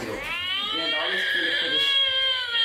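A Real Care baby simulator doll cries in one long, loud, wailing burst with a rising and falling pitch, continuous for the whole moment, with no talking.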